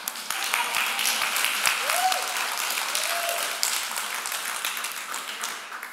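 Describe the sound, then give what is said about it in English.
A church audience breaks into sustained clapping during a sermon, a dense wash of many hands going steadily for several seconds, with a few faint voices rising underneath. “Oh, if you're going to clap, clap.”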